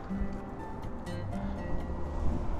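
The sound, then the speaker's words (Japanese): A steady low rumble of passing car traffic fills the background, fairly loud and continuous, with a faint swell of engine noise toward the end and no clear speech. “すいませんちょっと車の音がうるさかったり、えー、聞こえますかね”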